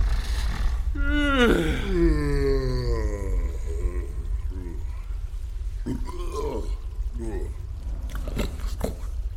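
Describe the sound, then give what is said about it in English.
A deep, snoring breath from a huge creature, an ettin roughly as large as two fully grown grizzly bears: a long drawn-out groan sliding downward, then slower rumbling, grunting pulses over a constant low drone, fairly loud, likely voiced by a person. “Okay, so it's it's not a breathing rock, but, but, but, but what, what is it?”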